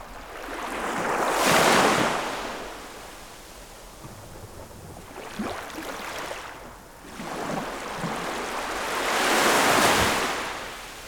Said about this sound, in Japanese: この波の音小林さん最高じゃないですかこれ優しいですよね、えー南の島のなんか波の音ってなんでこんな優しいんですかね